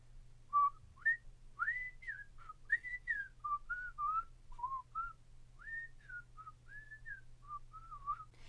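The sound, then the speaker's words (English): A person whistles a lively, bouncy TV theme tune of short rising and falling notes, clear, for about eight seconds over a faint low hum, with no talking. “So two things I learned about you is that you can whistle a tune, and also that you know what that song is called.”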